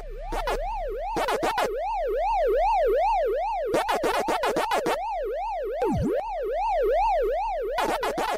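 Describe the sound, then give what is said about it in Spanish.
Pac-Man arcade game sounds: a steady electronic siren tone warbling rapidly up and down, broken by bursts of quick, buzzy chomping blips. No one speaks. “vamos a escucharlo, qué rico era escuchar el Pac-Man.”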